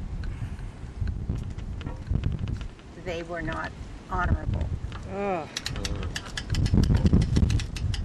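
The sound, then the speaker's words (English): Gusty wind buffets an outdoor microphone, a low rumbling roar that swells and fades throughout while people talk over it. “So the wind picked up, and we did have to go inside.”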